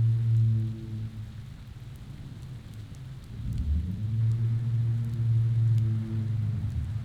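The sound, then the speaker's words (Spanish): Steady rain hisses continuously with a deep, droning rumble underneath, swelling louder around the middle like thunder, and no voices. “Una, una que la van a disfrutar todavía más si en donde están también está lloviendo.”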